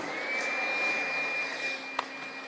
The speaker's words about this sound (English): you turn on the vacuum cleaner, and you try to clean your clothes and then you give them the sniff test and nothing's changed.